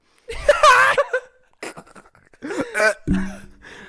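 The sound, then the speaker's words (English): A loud, comedic fart and burp sound effect plays in two raspy, drawn-out bursts, ending on a low droning rumble, with no talking over it. “We've just uh, played a big fart burp. noise.”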